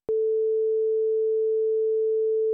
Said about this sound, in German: And the interesting thing is that the least interesting sound in the universe probably is the perfect sine wave.